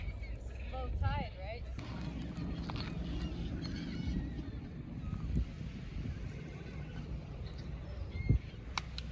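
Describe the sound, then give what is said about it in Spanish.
A large flock of seagulls on a beach cries out in short, squealing calls, clustered at the start and fainter afterward, over a steady low rumble of wind and car engine noise on a cold day. “Son gaviotas, muchísimas gaviotas, vean nada más.”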